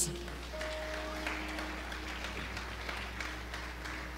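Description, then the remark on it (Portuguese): A church audience applauds Jesus during a sermon, many hands clapping in a dense, steady patter that lasts for several seconds at an even, fairly soft level over a faint low hum. “Aplauda Jesus.”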